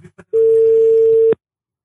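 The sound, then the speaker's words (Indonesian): Two quick blips, then a single steady telephone ringing tone, a flat mid-pitched beep lasting about a second, heard clearly and alone, as if through the handset while waiting for someone to pick up. “ya kita coba telepon orangnya aja ya”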